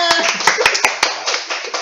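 Audience applause: a dense patter of many hands clapping, with a few sharp, louder claps standing out, steady and fairly loud throughout the short burst.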